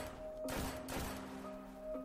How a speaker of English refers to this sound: Not screams from an argument, but horrible, terror filled screams, followed by three distinct gunshots.